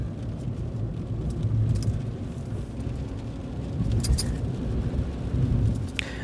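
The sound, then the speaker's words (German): Steady low rumbling road and tire noise from inside a small Smart electric car in motion, a constant dense drone with occasional brief clicks and rattles, fairly loud and continuous with no one speaking. “So, vom Lärm her finde ich ihn relativ laut.”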